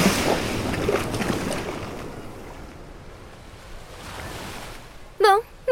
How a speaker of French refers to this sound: Ah non La vague